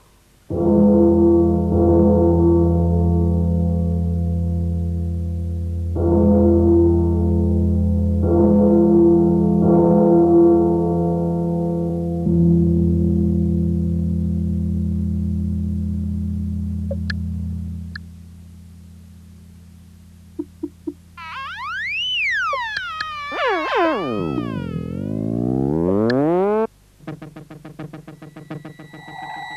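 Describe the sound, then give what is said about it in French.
Electronic music piece with deep, droning foghorn-like blasts repeating for several seconds, then swooping siren glissandi rising and falling, ending in a hiss of noise. Loud and close, with no voices. “Alors je vous fais écouter un extrait du poème électronique et on en reparle.”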